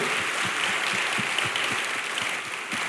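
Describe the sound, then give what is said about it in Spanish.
A church audience gives God a loud round of applause during a sermon, dense clapping at an even, moderately loud level for a few seconds with no voices over it. “¿Le puedes dar un fuerte aplauso a Dios por eso?”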